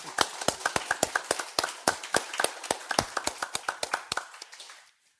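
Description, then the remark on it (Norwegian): Applause from a small group: a steady patter of sharp, crisp hand claps that thins out and stops after about four seconds, leaving silence. No one speaks over it. “Det må applaus!”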